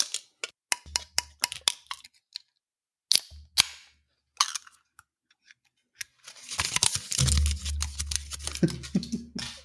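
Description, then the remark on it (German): Crinkling and sharp crackles as aluminium foil seals are peeled off the tops of Wet Peach drink cans, a burst of scattered clicks followed by a longer, denser rustling tear with a faint fizz. “Man hat ja oben noch so einen so Verschluss mhm. aus so Alufolie. ASMR-Moment.”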